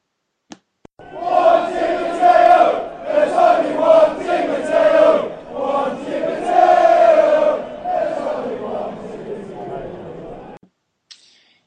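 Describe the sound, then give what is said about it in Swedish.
A Chelsea football crowd sings a simple but powerful chant together in a loud, sustained wall of voices, with rising and falling sung phrases that carry on for about ten seconds before stopping abruptly. “när han spelade i Chelsea, skulle att hela arenan ska resa sig upp, applådera och sjunga den här äh, simpla men ändå kraftfulla sången.”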